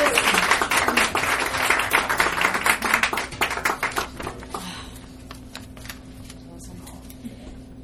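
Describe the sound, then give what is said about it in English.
A burst of audience applause, dense many-handed clapping that swells for a few seconds, then thins out into scattered claps and fades away. “of applause.”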